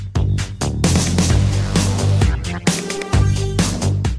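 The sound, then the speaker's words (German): Loud, busy instrumental video game level soundtrack with a driving beat, punchy bass notes and bright layered synths, playing on its own with no voices. “deswegen hören wir jetzt äh, Gun Tomorrow und Future Frenzy”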